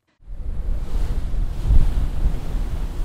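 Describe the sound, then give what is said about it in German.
Ocean waves wash and surge against a research ship ploughing through them in darkness at 4 a.m. with snowflakes drifting past; a steady low rumble with a stronger swell midway, mixed with wind buffeting the microphone. No voices are heard. “Das Forschungsschiff Helmer Hansen pflügt durch Wellen, die in der Dunkelheit nur zu hören und spüren sind.”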